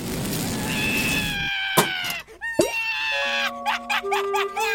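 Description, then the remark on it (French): A voice imitates a baby crying, the cartoon character Zig disguised as a baby, in loud, drawn-out wails that rise and fall, followed by a few shorter sobbing bursts and sustained whining tones, with no talking. “D'où viennent ces pleurs ah!”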